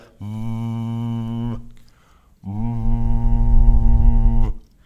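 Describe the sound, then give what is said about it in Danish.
Two sustained, steady-pitched hums voiced through a drinking straw held in the mouth, a buzzy, reedy tone held about a second and then about two seconds, fairly loud with a short pause between; the person blows through the straw while voicing at the same time, as a straw voice technique. “det eneste, man gør, det er, at man tager sugerøret i munden, og så siger man”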